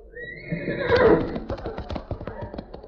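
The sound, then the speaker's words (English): A horse named Whirl Away gives a loud, shrill whinny, followed by a quick run of clip-clopping hoofbeats as it trots off. “I'm so hungry I could eat a horse.”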